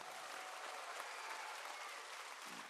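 A group of people applauding each other at the end of a filming session, sustained, dense applause, steady and fairly loud throughout with no pauses or speech.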